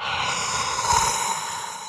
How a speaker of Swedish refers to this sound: Ja, där var ni ju ganska nära varandra ja. så att säga, ja. och andades varandras luft.